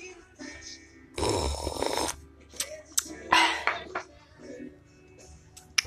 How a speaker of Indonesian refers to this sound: bentar seruput dulu